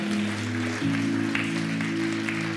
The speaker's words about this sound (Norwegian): Kan ikke lovsangerne og musikerne komme fram, og så reiser vi oss opp til slutt? Kan vi gi disse en skikkelig applaus? Tusen takk skal dere ha.